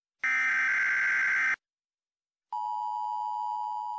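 An emergency alert warning tone: a loud, harsh buzzing blast for over a second, a brief silence, then a steady high-pitched electronic beep that holds to the end.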